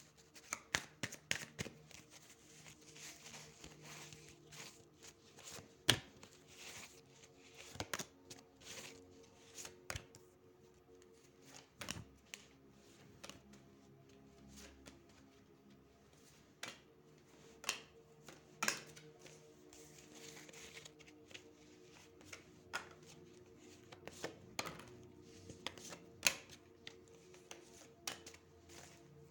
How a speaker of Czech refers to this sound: Já už se dívám na vaši fotku, míchám u toho karty a podíváme se teda spolu, jak se bude barvit ten rok 2022.